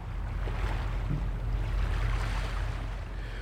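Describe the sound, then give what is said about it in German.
Steady seaside ambience with a low, rumbling wash of water and wind, broad and continuous, like waves lapping at the harbour of Puttgarden on the island of Fehmarn, where ferries leave for Denmark, with a boat engine hum, no voices. “Und da sind wir auf der Suche nach der dänischen Internet-Grenzübergangsstelle, also der nächsten, da gibt es ja ziemlich viele, wieder am Meer angelangt, wie man unschwer vernehmen kann.”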